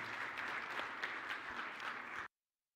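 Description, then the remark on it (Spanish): An audience applauds together, a dense, steady wash of many hands clapping at even loudness for about two seconds before it cuts off abruptly into silence. The applause is given to the Lord at a Spanish-language Christian church service, right after a prayer. “Démosle un aplauso al Señor, mis hermanos.”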